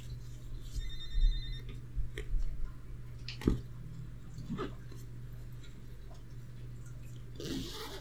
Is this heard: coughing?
no